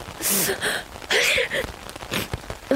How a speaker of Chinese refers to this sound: 没想到这里的天气落差这么大，白天还大太阳的，晚上就打雷下雨，还这么冷。